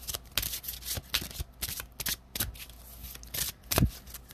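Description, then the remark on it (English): Shuffling of a deck of angel therapy oracle cards, a series of crisp papery riffles and slaps repeating in quick irregular bursts, with no one speaking. “Let's see what the angel therapy cards have to say.”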